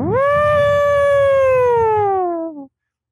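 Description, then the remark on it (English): A voice imitates the loud whine of crypto-mining machines, holding one loud, buzzy tone for about two and a half seconds that swoops up at the start, then slowly sags before cutting off. “ASICs are really loud. They go,”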